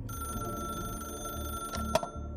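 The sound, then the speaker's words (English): A telephone in Monroe, Connecticut, in 1993 rings steadily, a sustained bright ringing tone over a low pulsing buzz, with a short sharp clatter near the end and no voices. “Our story begins with a phone call in Monroe, Connecticut, 1993.”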